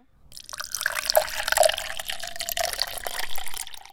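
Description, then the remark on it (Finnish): Water pours steadily into a glass for a few seconds, a bubbling splash with a faint rising ring as it fills, then trails off. No one speaks. “Me ihmiset tiedämme, että vesi kaadetaan sisälle lasiin, eikä lasia kaadeta sisälle veteen.”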